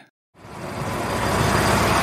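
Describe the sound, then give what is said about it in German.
A brief silence gives way to the loud, steady rumble of a two-car train at a station platform in Germany, swelling and holding with no voices. “Der Aufbruch aus Deutschland, mit dem Zug ging's ja los. Lauschen wir einmal.”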